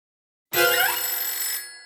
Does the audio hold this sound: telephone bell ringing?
yes